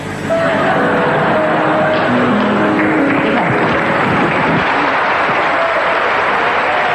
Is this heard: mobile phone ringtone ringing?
no